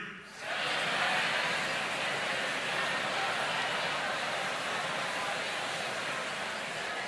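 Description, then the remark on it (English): A large crowd of voices, an audience all saying their first name, last name, street address, city, state and zip aloud at the same time, a dense, steady roar of overlapping speech that starts abruptly and holds loud throughout, no single voice standing out. “That's what it should sound like when we pray together in church.”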